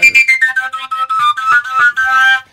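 A koncovka overtone flute plays a quick run of breathy, bright notes stepping downward and then hovering, each note tongued separately, fairly loud with no voices.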